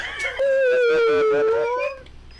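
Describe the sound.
A voice imitates a whale call with one loud, sustained moaning tone that wavers up and down for about a second and a half, heard alone with no talking.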